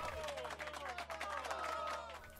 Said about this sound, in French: On applaudit bien fort.